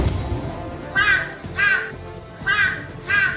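Four loud, harsh bird cries ring out in two pairs, each a short raspy squawk, over a faint low murmur of background sound with no talking.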